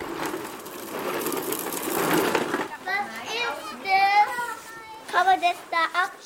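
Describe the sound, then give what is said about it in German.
Children playing outdoors in a daycare garden at the foot of the Karlshöhe in Stuttgart, Germany, under a large plane tree, playing in sand, sliding and riding toy ride-on cars; a broad wash of play noise and scuffing at first, then several young voices calling and chattering in high, lively bursts. “Unter einer ausladenden Platane spielen Kinder im Sand, rutschen oder fahren mit Bobbycars.”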